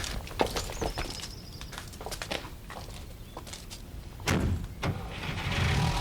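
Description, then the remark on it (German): Footsteps and small clicks outdoors, then a car engine turns over and settles into a steady, growing rumble as the vehicle begins to pull away. “Mein Auto steht gleich da vorn.”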